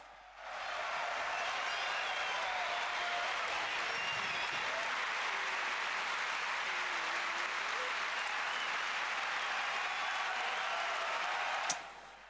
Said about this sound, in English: Oh, these two have so much deserved this applause.